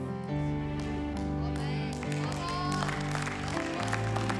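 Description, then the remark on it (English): An audience claps their hands together for Jesus in a steady, dense wash of applause, layered over sustained musical tones and a murmur of voices. “Just give Jesus a better hand clap than what you guys are busy doing.”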